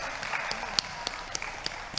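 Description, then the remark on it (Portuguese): A small audience claps steadily for visiting relatives from Rondonópolis and for first-time attendees, a dense patter of hand claps with a few sharper individual claps standing out, with no voices over it. “Vamos dar uma salva de palmas para eles, e para quem veio pela primeira vez também.”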